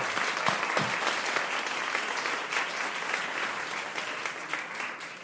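A crowd breaks into steady, sustained applause, a dense wash of clapping that holds at an even level for several seconds before easing slightly at the end.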